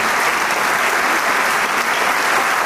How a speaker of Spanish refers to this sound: este joven gran maestro que regresa a seguir recibiendo el aplauso del público de manera muy formal junto con el doctor Ernesto Carlos sonríe a su público y se inclina para agradecerle en señal de respeto